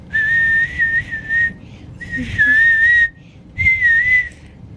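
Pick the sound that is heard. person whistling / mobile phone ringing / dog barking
person whistling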